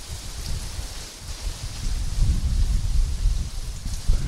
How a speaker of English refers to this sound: so you guys can hear some of the wind and some of the rain. Um, so it doesn't look too crazy right now. I mean, the, the rain is coming down huge. And you can hear the wind, but it's not super nuts.